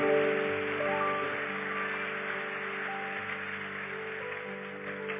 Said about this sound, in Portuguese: Vamos aplaudi-lo pelo seu amor mais uma vez.